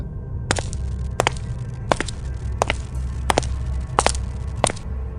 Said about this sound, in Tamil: என்ன இது இப்போ நாம் திரும்பி பார்த்தப்ப யாருமே இல்லையே இப்போ என்ன நமக்கு பின்னாடி யாரோ நடக்கிற மாதிரி சத்தம் கேட்குது